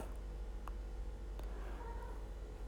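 A cat makes soft, brief vocal sounds while being petted, with a couple of quick clicks and a longer low meow-like murmur over a steady low hum, and no one talking.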